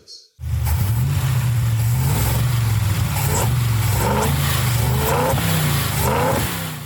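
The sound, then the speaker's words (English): A car engine starts up abruptly and runs loud, its steady low rumble swelling in several brief revving surges as the throttle opens, with no voices. “Notice how the engine might take some time to react to that input, and there are a lot of complex factors that give every engine sort of a unique character.”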